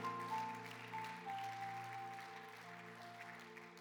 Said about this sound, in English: Wow, what a great crowd that we have this morning. Give yourselves a hand for being in the house of God. We're so honored that you're here.